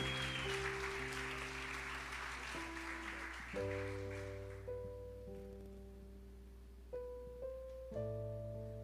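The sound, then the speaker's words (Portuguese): A church audience claps steadily for Jesus as a pastor is called up to preach, over sustained keyboard chords, the applause thinning and fading out after a few seconds while the soft organ-like music carries on alone. “Uma salva de palmas a Jesus pela vida dela.”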